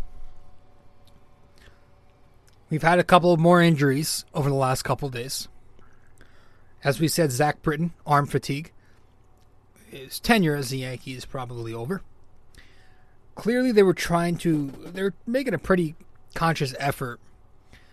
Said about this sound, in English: and if you hear noise in the background, that's just the washing machine on. I apologize about that.